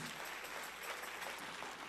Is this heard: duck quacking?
no